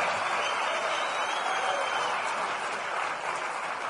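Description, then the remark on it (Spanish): An audience at a convention applauds the people attending their first convention, steadily for the full four seconds, a dense, even wash of many hands clapping with no pauses and no voices standing out above it. “Yo no sé si ya lo hicieron, pero queremos aplaudirles, reconocer que estén acá.”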